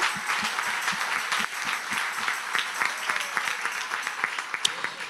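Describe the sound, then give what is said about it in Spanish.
A church audience applauds the Lord steadily, a dense wash of many hands clapping with some sharper individual claps standing out, sustained for several seconds with no talking. “Si usted le va a dar un aplauso al Señor, déselo bien, iglesia.”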